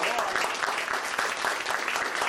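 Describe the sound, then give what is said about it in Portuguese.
A crowd applauds warmly to welcome the three guests of the day, dense steady clapping filling the whole moment with a bright, crackling texture and no gaps. “Senhoras e senhores, eu quero que, que agora, nesse momento, recebam com um caloroso aplauso os nossos três convidados de hoje.”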